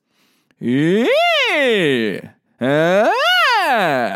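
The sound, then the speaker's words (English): A single voice sings two loud vocal slides on an "ee" vowel as a vocal exercise to access head voice. Each sweeps smoothly up about two octaves into a light head voice and back down, with a brief pause between them. “To access your head voice, you'll be using a two octave slide on the E vowel.”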